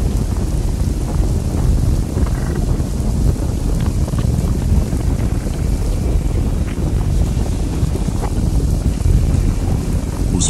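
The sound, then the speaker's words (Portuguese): A deep, continuous rumbling roar fills the air, heavy low-end noise churning steadily without pause, loud, as the ground shakes violently at a pyramid, like a massive tremor rolling on. “De repente, um som estrondoso encheu o ar e o chão sob nossos pés começou a tremer violentamente.”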